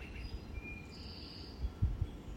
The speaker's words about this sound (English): The end of the 31st on this beautiful day where the flowers have blossomed, where the birds are chirping